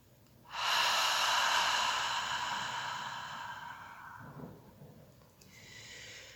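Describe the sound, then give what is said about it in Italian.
A long, slow breath pushed out through an open mouth, a soft airy hiss that fades gradually over several seconds, followed by a brief quiet inhale. No talking. “Lasciamo uscire tutta l'aria che sente la necessità di uscire dal nostro corpo, come se appannassimo un vetro.”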